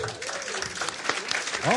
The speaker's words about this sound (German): vielleicht hört man das sogar ein bisschen, dass jetzt gerade klatscht.